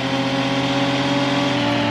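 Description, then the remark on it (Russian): A steady, droning car engine from a video game, revving at a constant high pitch with a buzzing harmonic tone, loud, heard alone without any voices. “То есть звук посередине машины, мотора.”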